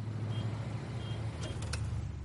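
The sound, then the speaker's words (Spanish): A car drives around the area of a hospital with a steady, low engine rumble and road hum, broken by two faint high-pitched beeps and a brief burst of clatter near the end. No one speaks. “conduce su coche por los alrededores del hospital.”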